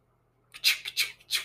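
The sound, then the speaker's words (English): A person shuffling through their paper notes, with about four quick crisp rustling bursts in a row after a brief silence. No one speaks. “That's me shuffling through my notes.”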